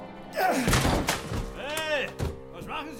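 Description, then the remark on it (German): A locked door is rattled and forced as its handle is pressed but it will not open, with several heavy thuds and knocks, broken up by short strained vocal grunts between the blows. “Holmes drückte die Klinke und rüttelte an der Tür, doch sie ließ sich nicht öffnen.”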